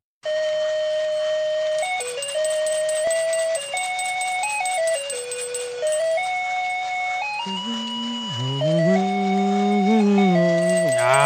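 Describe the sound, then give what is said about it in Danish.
A thin, beeping electronic melody from a musical Christmas card plays a simple carol note by note, then shifts to a second, lower and buzzier tune. No one speaks. “alle de gode klassikere spillet på øh, Bip Bob julekort, ligesom vi kender dem og elsker dem.”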